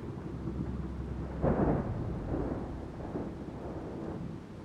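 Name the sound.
thunderstorm with rolling thunder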